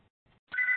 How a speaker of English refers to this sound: I'm sorry about the background phone.